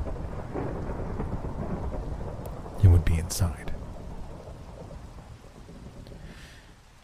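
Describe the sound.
Steady rain hisses throughout while a low rumble of thunder rolls in the background, with a sharper crack near the middle; a man speaks quietly over the storm.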